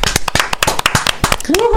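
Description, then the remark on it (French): Audience applause for the francophone album of the year at a music awards show: loud, dense, irregular claps in a steady burst, with cheering voices mixed in and a rising whistle near the end. “Encore une fois, une bonne main d'applaudissements, s'il vous plaît.”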